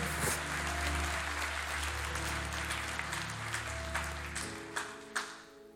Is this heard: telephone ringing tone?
no